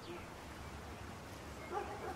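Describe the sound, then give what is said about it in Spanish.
A dog barks a few times near the end, faint against a low background hum of outdoor ambience, in a village about 12 kilometres from Valladolid, Spain. “Mavi, la chica que pasea a los perros, compró hace un año junto a su marido, Javi, una casa con terreno en este pueblo, a 12 kilómetros de Valladolid.”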